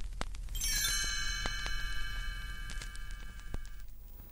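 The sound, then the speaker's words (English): A single bright chime strikes and rings out as a cue to turn the page in a read-along book, its shimmering tones sustaining for about three seconds before fading, with a few faint clicks in the quiet background. “You'll know it's time to turn the page when you hear the chimes ring like this.”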